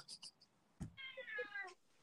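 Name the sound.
cat meowing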